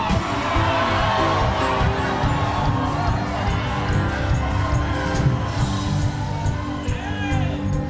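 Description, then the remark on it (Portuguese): A large crowd shouts and cheers loudly and continuously, voices overlapping into a dense roar with occasional higher whoops rising above it, sustained throughout. “Gritai! Gritai! Porque papai cancelou aquela dívida!”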